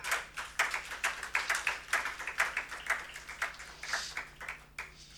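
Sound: audience clapping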